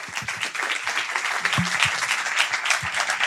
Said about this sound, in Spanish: Un aplauso.